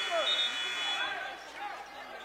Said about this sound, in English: still yelling at one of the officials as we got a whistle.